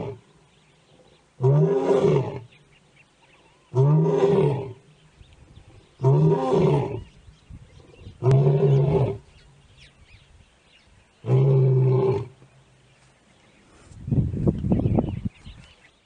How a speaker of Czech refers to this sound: my jsme slyšeli zvuk toho eh, řvoucího lva, který na nás křičí.